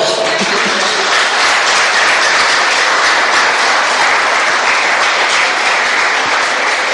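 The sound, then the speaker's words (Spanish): A church audience applauds for God during a sermon, steadily: a dense wash of many hands clapping at once that stays loud and even throughout, with no voices rising above it. “¿Le puede dar un aplauso a Dios, por favor?”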